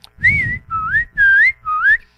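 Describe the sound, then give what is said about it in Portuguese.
A fife-style tune played on a pife (Brazilian fife), four short, bright phrases, each note sliding and wavering in pitch, played fairly loud over a low rumbling background noise. “Eu digo, eu toco o pife.”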